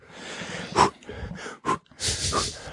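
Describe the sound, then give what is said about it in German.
Heavy, rasping breathing: a few sharp, snorting breaths in and out, ending with a long, loud exhale. No talking. “Atmen.”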